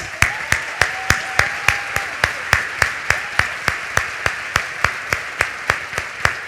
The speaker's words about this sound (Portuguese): Queria uma salva de palmas para a igreja, para eles.